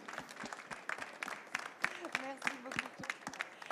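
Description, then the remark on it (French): An audience at a building project presentation applauds the project owners, a steady patter of many overlapping claps, fairly moderate in level, while a few voices murmur and call out underneath. “Et si vous pouvez les applaudir, en tout cas, je les remercie pour ce magnifique chantier.”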